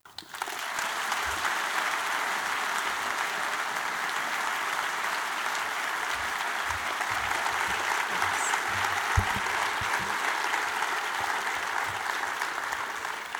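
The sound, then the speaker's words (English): An audience applauds to welcome Martha Nussbaum for her lecture, a dense wash of many hands clapping at an even, sustained level for over thirteen seconds, with no voices standing out. “So I would like a warm welcome and a big round of applause for Martha Nussbaum.”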